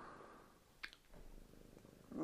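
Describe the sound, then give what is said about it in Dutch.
A cat purrs softly and steadily, a low continuous rumble with a faint click partway through and no talking. “Dat is met, met de poes die dat hier mijn aandacht afleidt van, van mijn verhaal.”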